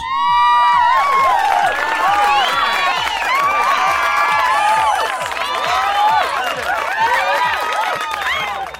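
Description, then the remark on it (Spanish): A crowd cheers and shouts for a guest musician, many overlapping voices, sustained and loud for the whole stretch, with rhythmic clapping running underneath. “Estos aplausos son para vos.”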